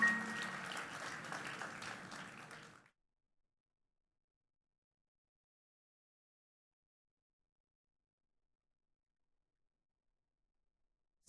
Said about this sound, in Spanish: De un aplauso, alabanza del Señor. Que el Señor le bendiga.